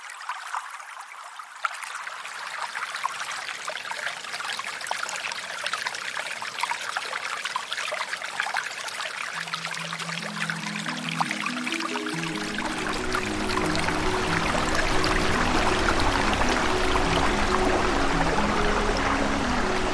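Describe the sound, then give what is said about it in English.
River water rushes and trickles steadily throughout, a continuous stream sound; about halfway through, low sustained musical tones rise beneath the flow and grow fuller toward the end. “Let's talk about rivers.”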